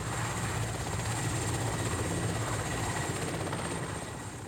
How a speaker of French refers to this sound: En revanche, pour mes 85 ans, c'est bien moi qui suis aux commandes du Gin, le premier hélicoptère à réaction français.